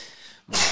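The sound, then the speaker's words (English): A single stifled sneeze from someone trying to hold it in: soft breathy hiss, a brief catch of silence, then a short, muffled burst of air, fairly loud. “Sorry, I tried holding it in.”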